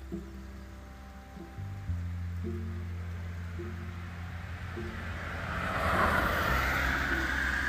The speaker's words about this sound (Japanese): ちょっとね雨が強くなってきたんで今日はこの辺で終わりたいと思いますこのまま降るのかなよいしょまあ、ちょっと収録できたんでよかったっすねこの雨の綺麗な音も入ってんのかなさーっていう音